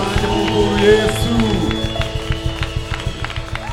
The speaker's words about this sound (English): Clap your hands for the King of Kings. Clap louder for Jesus.